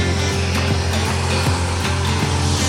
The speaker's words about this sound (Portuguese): Acabei de ligar o vácuo, então, como seria uma operação no campo. Liguei a turbina, dei partida, liguei a turbina, o vácuo está ligado. Agora eu vou estar tá ligando o V-Drive, que é o nosso acionamento elétrico do disco aqui. Ó.